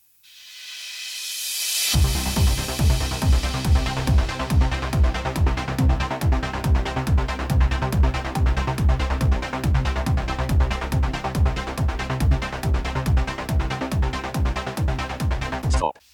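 A short wash of hiss fades in, then a steady, rhythmic music recording plays with a regular beat, denoised with a noise-reduction filter set to gentle, a faint layer of residual hiss still audible beneath it.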